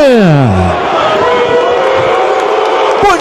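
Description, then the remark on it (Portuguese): A loud, dense crowd roars and boos Bolsonaro continuously, many voices blending into a sustained jeer. A falling vocal wail opens it, with no pause in the noise throughout. “Mas então, dito isso, tem coisa mais deliciosa do que ouvir um Bolsonaro sendo vaiado?”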